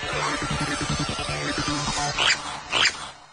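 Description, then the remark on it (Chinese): An otter call: a low, rough grunting rumble followed by two sharp, high-pitched squeaky chirps in quick succession, each rising and then falling. “No，那是一只水獭。”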